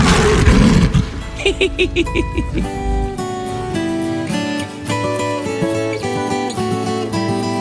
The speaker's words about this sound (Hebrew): הרגע היה פה אריה, לא? ראיתם אותו אולי? ראיתם אריה גדול כזה? לא? אה, אני רואה אותו! הוא מאחוריכם! זהירות!